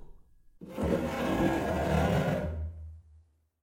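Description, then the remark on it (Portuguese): A heavy morgue body drawer slides open with a loud, continuous rolling rumble and scrape lasting about two seconds, then a low drone that trails off and stops. No voices. “Eu vou abrir agora a gaveta e destapar o corpo.”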